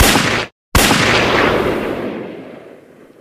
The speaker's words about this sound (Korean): 나는 문을 열어 젖혔고 거기 봉당을 내려서는 그를 보았소. 나는 정말 무의식 중에 그 사내를 향해 총을 쏘았던 것이요.